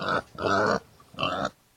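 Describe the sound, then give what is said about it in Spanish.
Three loud pig grunts in quick succession, harsh and squealing at the edges, each lasting a fraction of a second with brief pauses between, sounding agitated and frightened. “El pobre cochinito empezó a correr”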